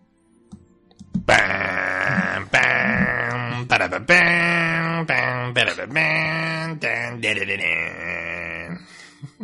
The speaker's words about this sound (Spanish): Ese último sonó como un eructo, ¿eh?